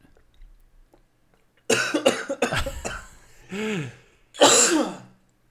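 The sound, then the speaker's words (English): A person coughs in a rough, sputtering fit after coffee went down the wrong pipe, several harsh bursts in quick succession followed by two strained, throaty hacks, loud with no talking. “So that's not coronavirus cough, is it? No, that's a coffee going down the wrong pipe.”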